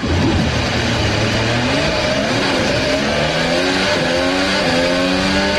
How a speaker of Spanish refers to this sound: enciendan los motores porque el Autódromo de los Hermanos Rodríguez está preparado para recibir la fiesta de la Fórmula 1 que en este año lleva por nombre el Gran Premio de México.